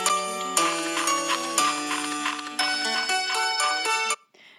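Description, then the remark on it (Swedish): A bright, chiming instrumental tune, the intro of the Swedish children's TV show Björnes magasin, shown on Bolibompa, with sustained notes stepping through a simple melody at moderate volume, then cutting off abruptly near the end. No one speaks. “Det är så himla långa intron det mm, var. Mm, den var över en minut.”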